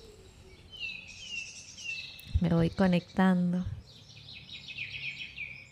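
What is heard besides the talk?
small birds chirping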